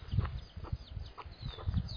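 Faint, high-pitched peeping from small chicks comes in brief scattered chirps over low thumping and rustling nearby, with no talking.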